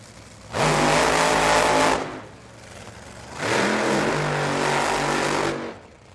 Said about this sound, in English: So while we listen to that gorgeous roar of two nitro powered top fuel cars, uh, you'll notice that the burnouts don't all the ways sound the same.